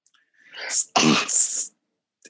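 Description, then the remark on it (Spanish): One loud sneeze: a rising, breathy intake builds for about half a second, then bursts into a sharp, explosive blast that trails off in a hiss, with nothing else around it. “Estornudos cordiales.”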